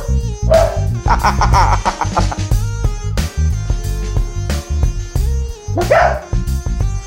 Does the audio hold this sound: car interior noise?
no